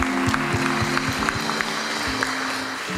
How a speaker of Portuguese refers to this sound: Vamos dar um salva de palmas aí pela vida dele.